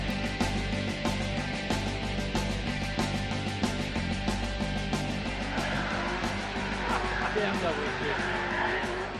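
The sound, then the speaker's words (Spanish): A race car engine roars loudly and continuously during a track exhibition, a dense, high-revving drone with steady low harmonics, unbroken, shifting slightly in tone near the end. “Exhibiciones de, turismo, de GTs, exhibido, esto es un BMW, bueno, pues exhibiciones de Ferrari y con, haciendo una exhibición con un Ferrari FXX”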